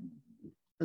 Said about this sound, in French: Ça, c'est pas moi qui grogne comme ça, c'est mon chien. OK, je, je, vous le montre là.